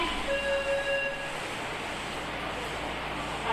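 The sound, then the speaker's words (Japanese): A subway train bound for Shibuya pulls into platform 1 at Gaienmae station with a steady, broad rumble, and a few high, thin squealing tones ring out early before fading into the continuous roar. No one speaks. “1番線に渋谷行きが参ります外苑外苑前です”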